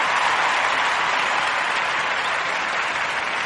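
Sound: applause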